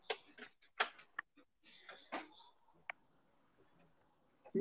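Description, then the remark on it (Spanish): Scattered, uneven clicks of keyboard typing, fairly quiet, tapping in short irregular bursts with brief pauses between, before a voice starts at the very end. “Oye, ¿sí quién está tecleando? Yo no estoy tecleando.”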